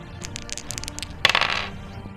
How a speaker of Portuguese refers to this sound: Eu vou rolar um D2 de dano, então, pra ela.